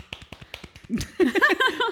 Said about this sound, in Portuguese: Pode-se bater palmas pode aqui, pode. no microfone.